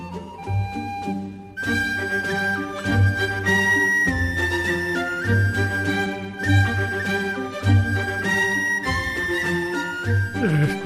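A recorded folk song plays steadily throughout, with a strong, regular bass pulse beneath bright, sustained melodic lines. It stays loud and full the whole time, with no talking over it.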